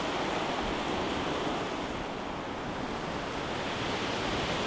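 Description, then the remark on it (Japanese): Steady roar of ocean surf washing against the rocks of the Shiofuki-iwa blowhole rock on the coast of Ito, Shizuoka Prefecture, Japan, overlooking Mount Fuji, in the morning; a dense continuous rush of water that swells slightly and stays loud throughout, with no voices. “今朝は富士山を望む海岸に響き渡る潮の音色静岡県伊東市潮吹岩”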